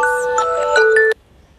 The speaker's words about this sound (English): Sorry about that. I, my alarm for water just went off.